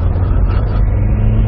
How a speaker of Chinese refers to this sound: 啊，当爬坡的时候，你能觉得这2.7升发动机底气是不足，越到上边，你看干踩不走。